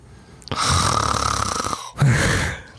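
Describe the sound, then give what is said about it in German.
A person draws a loud, deliberate breath in with a rough, snore-like rasp lasting over a second, followed after a brief pause by a second shorter, equally forceful breath, breathing in during a relaxation exercise as tensed feet are released. “die Leute müssen wissen, wie du einatmest und lauter atmest.”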